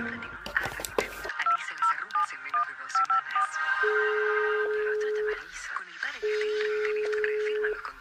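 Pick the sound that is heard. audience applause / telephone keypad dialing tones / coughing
telephone keypad dialing tones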